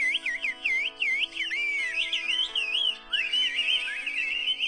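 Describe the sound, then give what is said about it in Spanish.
A woman whistles a continuous, rapidly gliding melody of swooping high notes, loud, with no talking, in a whistled language. “ah, esa señora? chifla chido, ¿eh?”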